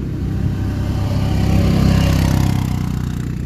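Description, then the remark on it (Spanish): A sand motorbike engine drones steadily, a low rattling rumble that swells louder midway as it passes, then holds on. No voices are heard. “Si pasan moticos de arena, ustedes inhalan y exhalan profundo.”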